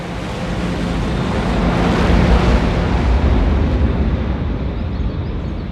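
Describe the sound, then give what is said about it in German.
A jet aircraft takes off from an airfield with a loud, steady roar of engine noise that swells in the middle, then its hissing upper edge gradually fades away toward the end. No voices. “Als der Jet wenig später startet, sehen Falke und seine Kollegin Katja ihm nachdenklich vom Rand des Flugfelds aus hinterher.”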